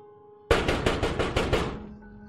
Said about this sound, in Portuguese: Então, certa noite, lá por volta de uma hora da madrugada, ele estava dormindo quando acordou com fortes pancadas na janela do seu quarto. Quem está aí? Ninguém respondeu mas novas pancadas se fizeram ouvir.